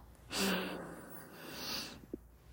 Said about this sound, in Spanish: Toma una respiración profunda de nuevo.